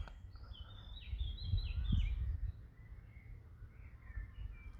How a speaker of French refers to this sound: sous fond, sous fond de, d'oiseaux qui gazouillent donc euh, sur cette question là donc c'est une conversation que j'ai avec toi aujourd'hui c'est une conversation aussi qu'a la nature euh, autour de moi je te laisse un petit peu écouter tout ça